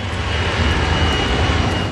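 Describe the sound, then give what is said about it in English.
An Avianca jet airliner on final landing approach to JFK, New York, on a pitch-black night with heavy mist, rain and sudden violent winds. Its engines roar in a steady, dense drone with a deep rumbling low end and a faint high whine, loud throughout, with no voices. “Avianca Flight 52 is on its final approach to New York unaware that conditions for landing at JFK are barely above the safe limits to land a plane.”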